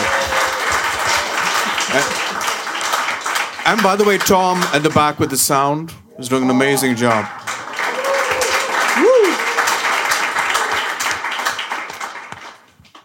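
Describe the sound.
Steady applause from an audience fills the room, a dense wash of clapping that continues under a man speaking loudly over it, then carries on after he stops.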